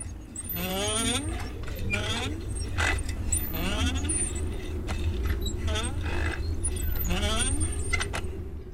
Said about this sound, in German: So klingt eine ausgetrocknete Wasserpumpe.